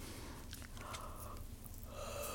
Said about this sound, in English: Little yawn.